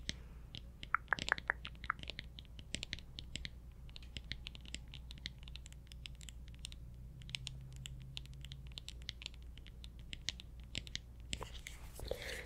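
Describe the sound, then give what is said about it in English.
Quick, light tapping on glass, fairly quiet, with irregular clusters of taps throughout and a soft scratchy flurry near the end. No one speaks. “grass tapping to me can sound like raindrops.”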